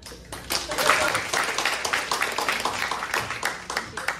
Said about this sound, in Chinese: 那我们现在用最热烈的掌声哦，邀请我们的。